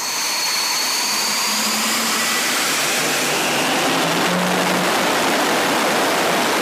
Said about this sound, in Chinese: 在机工长手势指挥下，幻象战机马力全开，发动机传出来的音波大到连地面也有震动感。驾驶座两侧的进气孔也跟着马力起伏，把地面静止的水滩扬起阵阵水花。